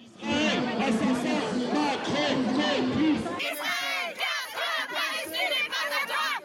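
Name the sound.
protest crowd chanting slogans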